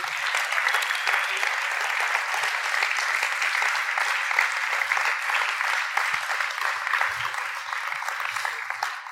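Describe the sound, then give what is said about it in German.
Sustained applause from a large audience welcoming a guest onto the stage, a dense, steady wash of clapping that holds at a fairly loud level for about nine seconds before easing slightly at the end. “Ja, jetzt dürfen wir mit einem ganz, ganz großen Applaus”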